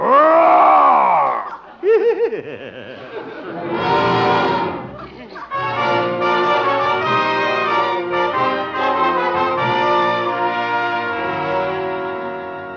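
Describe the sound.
A man dressed in a bearskin costume imitates a bear with his voice, letting out loud, drawn-out growls and groans that rise and fall in pitch, followed by a long rumbling roar.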